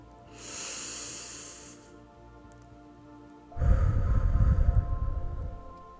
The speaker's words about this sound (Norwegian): La oss bare starte med et dypt pust helt ned i magen.